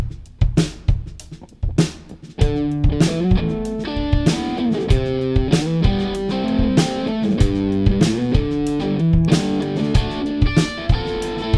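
A live band plays a short, upbeat instrumental piece, opening with a few sharp drum hits before guitar, bass and steady drums kick in together, loud and close, with no talking.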